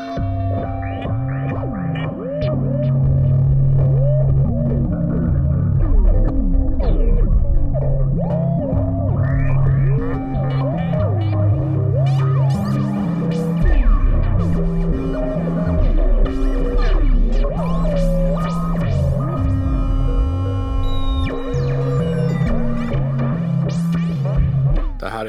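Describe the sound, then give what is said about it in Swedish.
Electronic synthesizer music generated by a mushroom plays steadily for the whole stretch, with sustained droning tones, warbling pitch glides and effect-heavy, slightly distorted textures. It is fairly loud and has no voices. “Eh, det är en svamp.”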